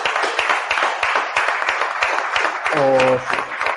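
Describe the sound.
A steady burst of applause, given by the director of datv.com to thank supporters, many hands clapping in a dense, continuous patter at an even loudness, with a short voiced sound briefly rising over it near the end.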